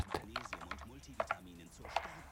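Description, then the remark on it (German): Irregular bursts of sharp computer keyboard clicks, about eight keystrokes in quick uneven taps, fairly quiet, heard over the phone as a woman types on her computer, with a muffled voice murmuring underneath throughout. “Ich habe das Telefon gehört, wie sie auf ihrem Kompi rumgehackt hat.”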